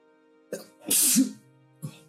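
A woman gives a single loud sneeze with a sharp breathy burst, set between a short inhale before it and a brief sniff or exhale after, with no talking.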